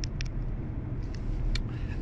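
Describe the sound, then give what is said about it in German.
Steady low rumble of a car interior, a constant engine and road drone filling the cabin, broken only by a few brief faint clicks and ticks, with nobody talking. “So, nächster Versuch. Dann doch wieder im Auto.”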